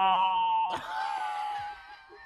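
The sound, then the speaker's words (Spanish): A woman wails in a high, sustained cry that breaks into a louder, strained scream partway through, continuing for a couple of seconds, fairly loud, with no talking. “Una mujer que grita.”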